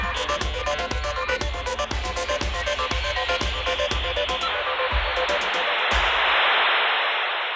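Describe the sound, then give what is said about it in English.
A rhythmic musical beat fades out as a loud, steady cicada buzz rises and takes over, droning on its own through the final seconds. “He's more of a cicada man, sounds like.”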